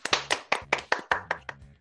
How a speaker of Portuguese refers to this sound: Deem as boas-vindas para o novo podcast Universo Corredor. Palmas!